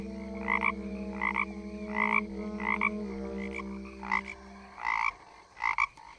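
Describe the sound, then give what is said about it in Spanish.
A toad croaks in the distance in a thick forest, in a steady rhythm of about eight raspy pulses. A low, sustained drone underneath drops away near the end, leaving the last few croaks sounding more isolated. “Y no se sabe si era un sapo o un tigre.”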